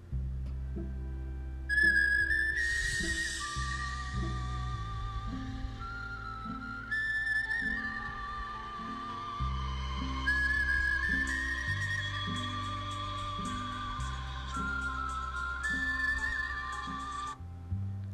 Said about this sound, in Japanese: これをお風呂で口笛で吹いてますあの皆さんも是非一度試してみてください